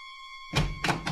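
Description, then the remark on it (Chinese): A door is opened with a dull thunk, followed by two more heavy bumps, while a faint steady high-pitched whine hums throughout. “小羊兴奋的打开门，没想到大野狼张牙舞爪的冲进来。”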